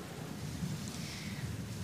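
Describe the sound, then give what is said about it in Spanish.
Steady, even rain hiss with a low, continuous rumble underneath, like a thunderstorm, with no distinct thunderclap and no voices; a hurricane storm in Miami under tornado and flood warnings. “Entonces, en términos de brisas y otros factores, ahora mismo estamos bajo unos avisos de, de tornado y de inundaciones.”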